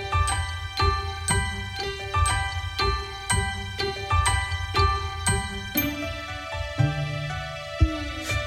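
A cheerful children's song intro: bright, chiming bell-like notes bounce over a steady beat, then shift into fuller sustained tones near the end, with no singing or talking.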